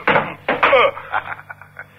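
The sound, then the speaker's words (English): A gun is thrown and slams against a door with a sharp, loud bang, followed quickly by a second knocking impact and a brief rattling clatter that fades out. “Your gun hit the door”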